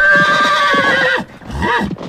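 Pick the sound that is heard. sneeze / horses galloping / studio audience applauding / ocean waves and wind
horses galloping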